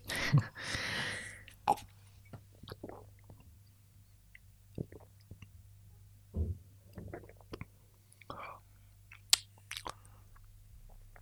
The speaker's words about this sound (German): Ich finde, ich nehme jetzt noch so einen Schluck von diesem formidablen Getränk und danach können wir darüber diskutieren.